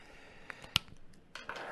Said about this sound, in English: They still have a theme to them, much like theme boosters, but they're meant to be playable, essentially, right out of the pack. Oh, should open this one too.